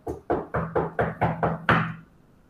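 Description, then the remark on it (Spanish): A rapid series of about eight knocks on the wooden doors of a house, evenly spaced, with the final knock landing slightly harder before silence. “Estábamos conversando y de repente en las puertas de madera se escucha”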